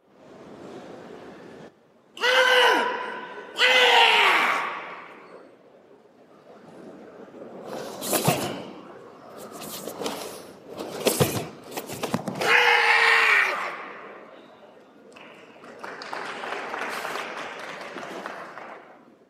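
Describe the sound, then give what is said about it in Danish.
Two loud, forceful karate shouts ring out, followed by a scattering of sharp slaps and another shout, then a stretch of steady clapping from a small group of about four people. “Lad os lige, lad os lige prøve at høre lidt fra, øh, fra karate.”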